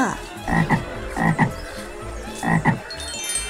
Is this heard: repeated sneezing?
no